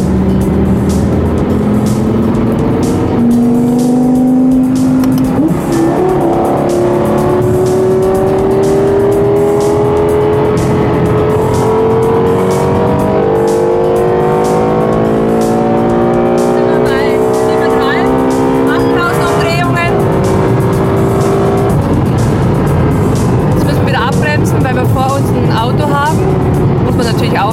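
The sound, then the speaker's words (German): A sports car engine climbs steadily in pitch as it accelerates hard up the Autobahn on-ramp onto the Autobahn, downshifting and revving up through the gears with a loud, continuous roar and brief shifts near the end. “Und sobald wir dann drauf sind, werden wir dann mal zurückschalten und dann werden wir mal den Sound aufholen lassen.”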